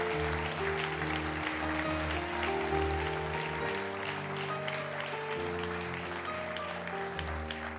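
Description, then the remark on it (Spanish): A crowd claps steadily and loudly for several seconds in applause for the Lord, a dense continuous patter, while sustained keyboard chords play underneath and shift pitch a few times. “Dale, dale un aplauso fuerte al Señor.”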